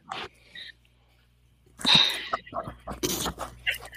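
A five-month-old female puppy snuffles and sneezes: a short burst, a quiet pause, then a sharp sneeze followed by a flurry of quick, breathy snorts and sniffs.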